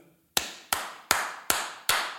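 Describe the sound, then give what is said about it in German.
Five loud, sharp hand claps at a steady, slightly uneven pace, each crisp with a short ringing decay, and no talking. “Wir haben gestern festgestellt, dass ich sehr laut klatschen kann.”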